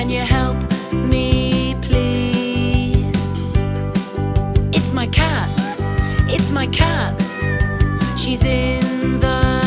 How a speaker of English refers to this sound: It's my cat, it's my cat. She's in the tree.